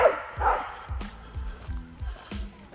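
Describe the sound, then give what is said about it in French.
A dog barks repeatedly in short, sharp bursts, several barks in quick succession, with faint background noise between them. “Elle a foncé vers un autre chien.”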